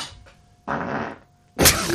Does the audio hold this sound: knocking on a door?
no